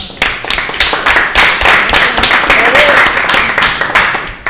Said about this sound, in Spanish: Un aplauso para ella.